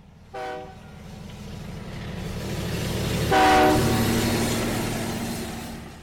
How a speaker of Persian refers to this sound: قطار تلق طلوق می کرد و میگذشت چهره ها و دست ها در پنجره ها و در خطی تند محو می شدند